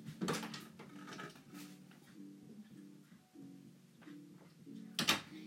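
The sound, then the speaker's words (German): A door is opened: a sharp latch click, a low creaking drone as it swings, then another clunk at the end. No one speaks. “So, ich muss jetzt die Tür aufmachen.”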